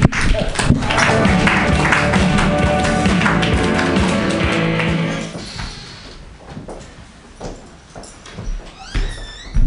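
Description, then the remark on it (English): A crowd bursts into loud applause and cheering for a performer being introduced, a dense wash of clapping that holds for several seconds before thinning out into scattered claps and quieter background noise. “Make some noise”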